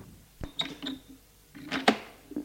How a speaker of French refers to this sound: Le père ouvre une porte,